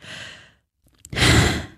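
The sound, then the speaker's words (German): A voice performs an exaggerated, loud exhale: a short breath in, a pause, then a long breathy huff of boredom, with no talking. “Vielleicht gehörst du zu der Sorte, die unabsichtlich ein bisschen zu laut ausatmen.”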